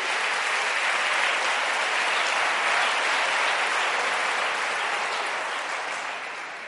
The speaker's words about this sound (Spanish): Un aplauso fuerte al que vive.